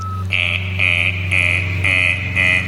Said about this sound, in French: Ah, c'est l'alarme. Ah oui, en effet, il est grand temps d'atterrir.